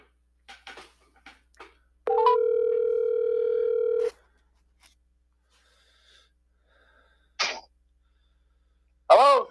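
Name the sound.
telephone dial tone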